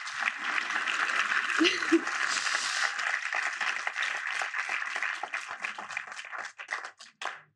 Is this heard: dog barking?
no